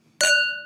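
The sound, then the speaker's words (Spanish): A single bright clink of wine glasses touching in a toast, followed by a clear ringing tone that slowly fades. Fairly loud, with no voices. “Así que brindo salud. Salud.”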